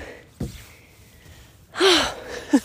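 Heavy, winded panting after running up the wooden stairs of an outdoor lookout tower: a short breath, a pause, then a long loud gasping exhale followed by a quicker catch of breath, with no talking.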